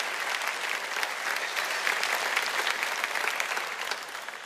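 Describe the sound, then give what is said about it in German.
Sustained applause from a large audience for the team after a song, a dense, steady clatter of many hands clapping at once, fairly loud and continuous throughout with no voices standing out. “Geben wir unserem Team nochmal einen richtigen Mega-Applaus.”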